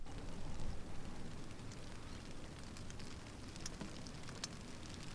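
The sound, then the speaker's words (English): Steady rain pattering outside on an extremely windy day, with a broad, rushing wind noise underneath, heard through an open window. Occasional sharper drips tick through the continuous wash, with no voices present. “Obviously, it's raining today. It's also extremely windy.”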